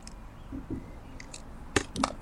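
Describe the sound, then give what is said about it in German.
Fireworks in Portugal crackle and pop in a few sharp, irregular bursts, fairly quiet, over a low steady background hum. “Hier ist äh, gerade Feuerwerk.”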